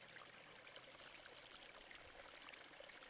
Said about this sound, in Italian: verde con sotto un fiume che scorre. Mi fermo. Lì metto i piedi nel fiume e ascolto le sensazioni che mi arrivano. L'acqua scorre e massaggia i miei piedi.